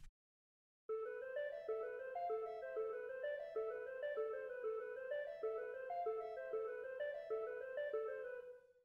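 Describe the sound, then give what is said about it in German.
Steady organ music, the organ part of an arrangement doubling the piano line, plays a bouncy repeating melody in the mid and upper register, loud and continuous for about eight seconds after a brief silent start, with no voices. “Und auch hier darf die Orgel nicht fehlen.”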